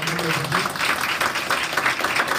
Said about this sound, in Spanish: Fuerte el aplauso Dios por la vida de ellos.